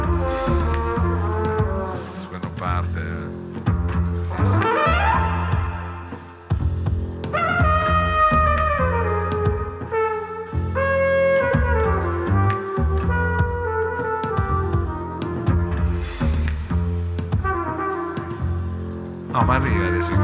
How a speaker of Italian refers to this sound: Tutto il ritmo è dato dal, dal rumore del tram.